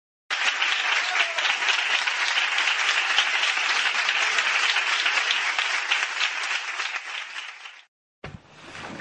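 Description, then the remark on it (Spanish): Loud, steady applause from many hands welcoming the guests of a discussion gathering (tertulia), a dense crackling wash that holds for about seven seconds, then cuts off abruptly before a brief burst of other noise at the end. “Les damos un fuerte aplauso y la bienvenida.”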